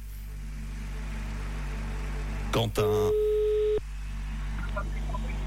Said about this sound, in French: L'ordinateur va appeler directement quelqu'un parmi les inscrits, les inscrites, et ça sonne maintenant.